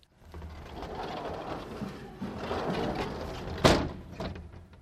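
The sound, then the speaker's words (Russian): An old wooden sliding door at the entrance of a small-town railway station building from 1933 rumbles open along its track, a scraping, rattling drag lasting a few seconds, ending in a sharp knock as it hits its stop. “Вывеска на здании вокзала сохранилась в том виде, в каком она была при открытии станции в 1933 году, и даже входить в здание нужно через старую деревянную раздвижную дверь.”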